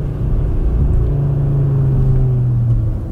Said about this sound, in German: Das Vibrieren, das man hier hört, kommt übrigens nicht vom Auto, sondern von meiner Handyhalterung.